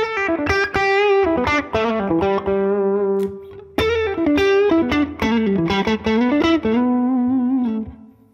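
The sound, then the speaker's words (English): An electric guitar run through a J-Rad 45 Caliber gain pedal, based on a JTM 45 and used as a higher-gain rhythm box, plays gritty, overdriven chords and short riffs, notes ringing and sustaining between quick strums, loud and steady with no talking over it. “So that's my little more gain, maybe more of a rhythm box, mm-hmm.”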